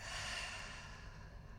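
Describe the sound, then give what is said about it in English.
A single long, breathy exhale pushed out through the mouth after a deep inhale through the nose during a guided breathing exercise, a soft steady rush of air that gradually eases off, with no talking. “taking a deep inhale in through your nose, expanding through your heart all the way to your lower belly, and exhaling out through your mouth.”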